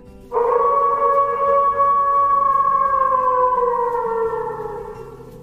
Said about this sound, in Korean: 마녀는 40마리의 커다란 회색 늑대들을 불렀다. 가라! 그녀가 말했다. 그리고 그들을 갈기갈기 물어뜯어라! 허수아비와 양철인간이 늑대들의 소리를 들었다.